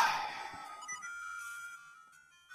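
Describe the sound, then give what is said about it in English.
A video game's low-health warning beeps repeatedly as the player is down to one heart, over bright, sustained electronic tones, at moderate loudness and fading slightly toward the end, with no one talking. “least we listen to that good beeping sound, huh?”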